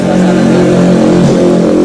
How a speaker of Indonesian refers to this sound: suasana kan ada motor. sekarang kita di outdoor ya, guys